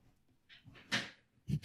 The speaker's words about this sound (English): Sorry, I was adjusting. I was adjusting, adjusting. the chair. There's, I'm running into all the cables.